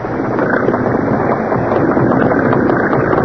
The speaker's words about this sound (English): Outline of launch still there. Yes. That was another boat leaving.